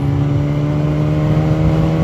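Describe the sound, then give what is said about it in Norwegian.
A motorcycle engine drones loudly and steadily, a continuous humming roar with a faint rise in pitch as it passes a Polish truck, with no voices. “Forbi den polske lastebilen her.”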